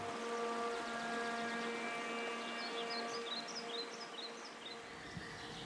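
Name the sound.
green woodpecker call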